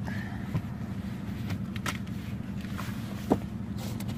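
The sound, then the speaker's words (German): Objects, including a cola, an old parking disc and a press sign, are shoved and rustled back into a car storage compartment, with a few sharp clunks and scrapes over a steady low hum, without any talking. “Das lege ich mir immer ins Auto, wenn ich äh, pressemäßig unterwegs bin stopfen wir das hier wieder schön rein.”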